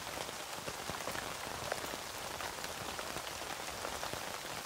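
Steady rain patters on a tent, a dense hiss of countless drops with sharper individual taps scattered throughout. The level stays even and fairly quiet, with no voices.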